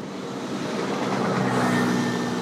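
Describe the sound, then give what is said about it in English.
A sprinter train rumbles past on the tracks, a steady loud roar with a rising motor whine partway through, with no voices. “All right, I'm back at the train tracks, and here's the sprinter train”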